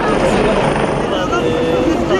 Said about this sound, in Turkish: Dünyanın en çok kazanan sporcusu golfün bir numaralı ismi Tiger Woods Turkish Airlines Cup için geldi Türkiye'ye. Helikopterle Boğaziçi Köprüsü gişelere indi. Trafik tek yönlü kesildi.